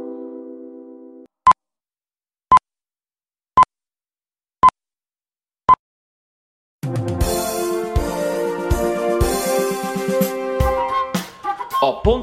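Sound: radio time signal beeps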